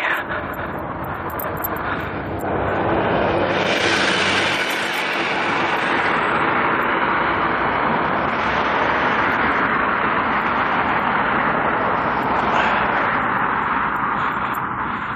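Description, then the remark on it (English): A train rumbles past, a loud, steady roar of wheels and cars on the rails that fills the whole stretch without letting up, with no voices heard. “I just jumped across some train tracks in an amazing act of personal danger and sacrifice.”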